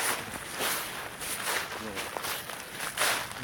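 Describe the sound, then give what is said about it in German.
Squelchy footsteps in Crocs tread through wet leaves at a steady walking pace, each step a broad, damp rustle. “Das, das waren nochmal Crocs durch nasses Laub.”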